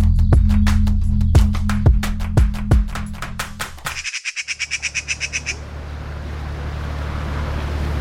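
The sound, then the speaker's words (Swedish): A boat's engine drones steadily beneath the rush of water as it travels past Kungliga Djurgården, with sharp repeated clicks early on and a burst of bird chirps midway before the wash settles into a constant hiss. “Och sen så är det ju fantastiskt att man kan åka båt ut också.”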